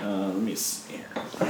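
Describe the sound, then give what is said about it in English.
A short, bright hiss of a nitro beer bottle, a peanut butter latte nitro golden stout from the San Diego brewery Belching Beaver, being opened cuts in between bits of casual talk, a quick airy burst lasting a fraction of a second. “Oh yeah, you can hear that nice little hiss in the background.”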